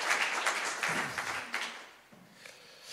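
A crowd applauds with dense, steady clapping that starts strong and gradually thins out, fading toward the end.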